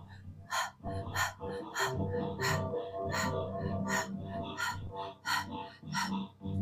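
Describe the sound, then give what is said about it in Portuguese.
Quick, sharp breaths repeat in a steady rhythm, about one or two per second, fairly loud over a sustained humming musical drone, during a short, rapid breathing exercise. “Comece uma respiração curta e rápida e movimente as suas mãos no movimento circular, giratório, na frente da altura do seu genital.”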